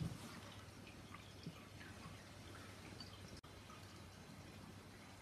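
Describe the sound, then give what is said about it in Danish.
Quiet, irregular drips of water fall steadily through a filter over a low background hum, small soft plinks scattered through a few seconds with no one speaking. “Og nu får det lige lov at drøbe af i et øjeblik, øh, så kan vi tage det op.”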